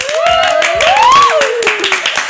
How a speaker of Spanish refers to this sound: Un aplauso, por favor.